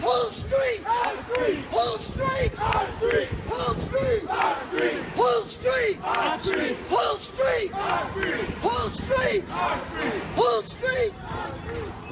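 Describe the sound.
A crowd of protesters chants in unison in the street, loud, rhythmic shouted phrases repeating steadily over a dense background of voices and noise.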